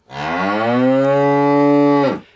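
A single loud cow moo, a steady drawn-out low call of about two seconds, heard on its own with no talking.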